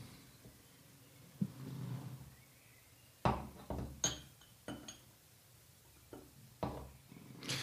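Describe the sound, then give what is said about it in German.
Glassy clinks and taps as a few drops of water are added to a strong whisky in a glass to dilute it, a scattered series of sharp knocks over a soft handling rumble, with the glass swirled between them. No one speaks. “Hast du ein paar Tropfen Wassergriff bereit? Vielleicht ist ja wirklich was zum Verdünnen. Ja, das mach ich mal.”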